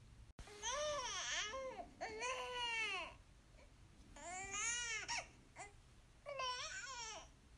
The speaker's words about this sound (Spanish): Así más o menos suenan cuando un bebé tiene hambre. Es difícil identificarlo, pero una vez ustedes empiezan como a escuchar bien lo que el bebé pronuncia eh, la mayoría de veces en el lloro